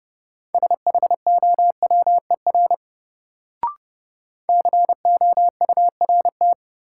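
Fast Morse code at 30 words per minute in a single steady mid-pitched tone, rapid dots and dashes in two bursts separated by a short pause with a brief click between them.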